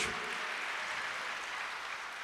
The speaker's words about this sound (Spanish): Sí, denle un aplauso a Dios para llenar el espacio.